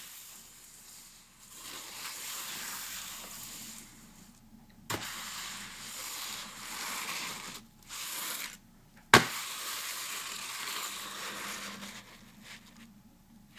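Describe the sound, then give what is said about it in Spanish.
A broom sweeps across a broken, folded cardboard box in several long, hissing passes that swell and fade like surf, made to imitate the sound of sea waves, broken by short pauses and two sharp knocks, without talk. “y una escoba y la pasa sobre la caja y es para hacer ese sonido de, las, de ola de mar.”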